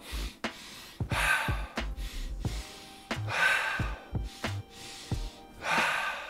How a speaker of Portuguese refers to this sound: Que você utilize as duas técnicas combinadas. Que você utilize primeiro o suspiro fisiológico.